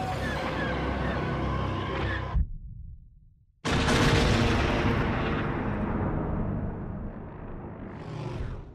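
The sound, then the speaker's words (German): A sci-fi bomb explosion from a dropped bomb, seen as a small, blue, round blast: dense rumbling roar drops to a brief near-silent hush, then a massive booming shockwave slams in and rolls on loudly, a sustained, crackling wall of sound. “Kurze Stille, in der man diese kleine, blaue, runde Explosion sieht und dann kommt die Druckwelle mit diesem unfassbar brachialen Sound, bei dem der Frankfurter Flughafen denn sich bei dir wahrscheinlich gemeldet hat.”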